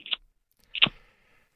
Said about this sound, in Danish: Der kan jeg høre, at du lige øh, satte ild til øh, et stykke tobak. Er det korrekt? Ja, Ja, jeg ryger print.